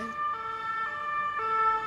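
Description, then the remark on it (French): The siren of an unmarked police car speeding past wails in a two-tone pattern, its pitch switching back and forth several times at a steady, fairly loud level, with faint road noise and no voices. “la voiture banalisée euh, qui passe à fond.”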